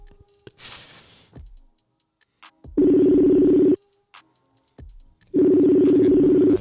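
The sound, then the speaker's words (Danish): A phone ringback tone sounds twice while a call is placed live on air on Dråben: two steady, loud buzzing tones about a second long, separated by a pause, after a brief breathy noise at the start. “så jeg ringer ham lige op, og så jeg håber, han tager den.”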